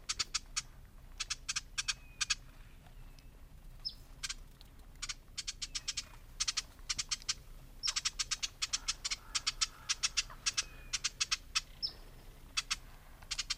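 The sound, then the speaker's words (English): Ruby-crowned Kinglet call notes: bursts of rapid, dry, high chattering ticks repeated throughout, crisp, with a few faint thin whistles between runs and no talking. “So those are the call notes of the ruby crown kinglet.”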